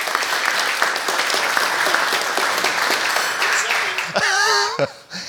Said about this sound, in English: Yes. Yeah, let's give a round of applause.